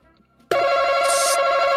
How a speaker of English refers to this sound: God, double buzzing. Uh, I only hit it once. That's weird. Oh, I heard it twice. Weird.